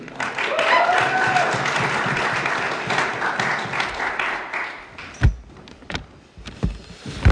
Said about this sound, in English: All right, make a little noise for the band. They did so good.